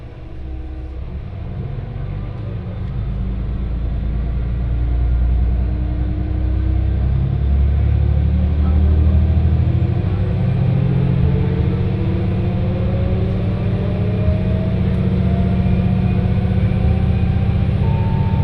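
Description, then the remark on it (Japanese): A one-man local train bound for Fukui running between stations: a loud, steady low rumble of wheels and motor, with a faint whine rising slowly in pitch as it picks up speed. No voices. “電車は福井行きワンマンカーです”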